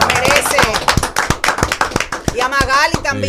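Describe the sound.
A crowd claps in a steady, rhythmic beat, sharp claps landing about three times a second, while voices shout and cheer loudly over the top.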